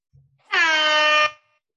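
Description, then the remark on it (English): A single loud buzzer horn blares for under a second, a steady, harsh, brassy tone that starts and stops abruptly, with no talking over it. “Just in before the buzzer.”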